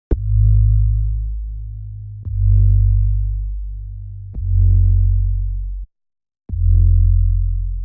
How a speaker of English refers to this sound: and of course, this bass, which is, um, uh, if I take out all the effect chain, it's really just um, a sine.